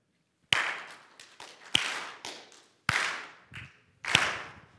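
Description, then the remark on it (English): An audience claps together in a steady rhythm, clapping before the Lord ahead of the Word of God, with sharp strong accents about once a second and lighter claps between. No one speaks. “As a primer of sorts for the Word of God, I would love for you guys to join me in clapping.”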